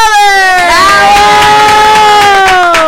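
A crowd at Radio Centreville cheers loudly for a guest orchestra, with a sustained high whooping cry rising in pitch and holding steady, over a steady patter of applause throughout.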